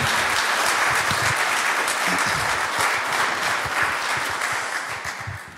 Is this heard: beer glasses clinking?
no